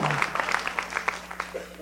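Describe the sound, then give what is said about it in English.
A scattering of audience clapping, irregular sharp claps tumbling over each other for a couple of seconds at moderate volume, with a low steady hum underneath. “Mm, yeah, the claps.”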